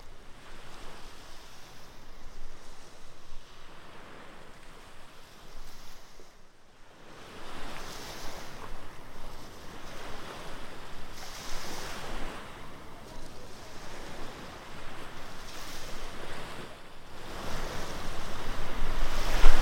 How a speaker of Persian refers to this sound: بعضی وقتها هم موجهایش قله های شنی را خراب میکند دریا با موجهایش آرام آرام ساحل را شکل دهد